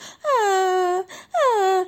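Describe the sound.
A voice imitates a lion cub crying: two high, whiny wails, each sliding downward in pitch and then holding, the first longer, with a short breath-like gap between them.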